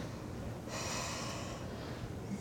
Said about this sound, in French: Maintenant, …, tu vas respirer normalement, puis avec les doigts, on compte six respirations. OK? Tu vas respirer fort.